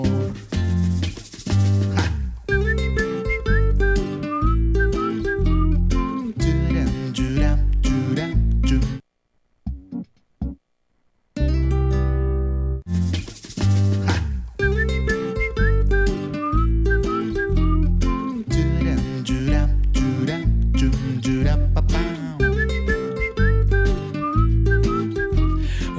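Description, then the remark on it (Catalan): A man whistles a melody over a full, steady band backing in a song. The music drops out briefly near the middle, then returns at the same lively level. “I saps xiular igual que aquest home?”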